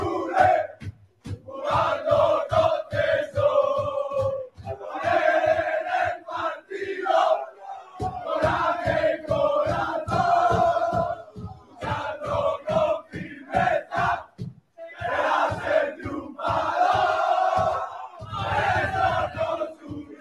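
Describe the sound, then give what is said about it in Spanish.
A large crowd of Málaga fans chants a song in unison while celebrating, backed by steady, regular drumbeats struck by a man, keeping a strong marching rhythm throughout, loud and sustained with brief pauses between phrases. “se lo saben, se lo saben. El, hombre, el, hombre que está ahí con, el, con los golpes.”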